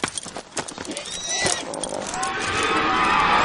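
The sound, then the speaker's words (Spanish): An untamed horse whinnies shrilly in rising, wavering cries as it throws off its rider, amid a loud, noisy commotion of scuffling and crowd sound, the din building steadily toward the end. “Se lo ha quitado de encima como una vaca sacude una mosca con su cola.”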